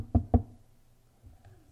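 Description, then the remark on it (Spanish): Two firm knocks in quick succession on a door that is locked from the outside, deep and thudding, followed by near silence with only faint background noise. “Tócale.”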